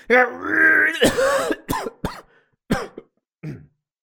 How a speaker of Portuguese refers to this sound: A confusão provoca tosse.